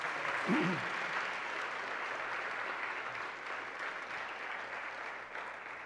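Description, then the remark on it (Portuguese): An audience applauds with steady, dense clapping that holds for the whole stretch, a brief voiced sound rising early on and the clapping easing slightly at the very end. “Vamos aplaudir esses amados aqui também.”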